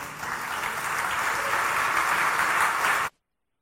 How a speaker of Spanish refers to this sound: Recibámosle con un aplauso.